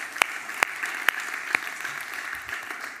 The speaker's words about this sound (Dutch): En ik ben daar dankbaar voor en ik ben trots op ons als lichaam van Christus. Ja, daar mag je voor klappen met elkaar.